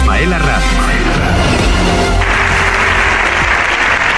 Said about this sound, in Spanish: Con esta ovación unánime han recibido los diputados y senadores al presidente ucraniano Volodymyr Zelensky, que ha compartido en una sesión conjunta de las Cortes Generales con un discurso que es uno de los primeros tras conocerse la masacre de Bucha